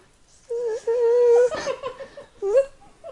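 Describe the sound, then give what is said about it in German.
A voice imitates a mosquito's high, whining buzz: one long nasal tone held for about a second, then after a pause a shorter rising whine, fairly loud. “eigentlich auch relativ müde, bist du, und liegst dann so und bist kurz davor und dann hörst du so.”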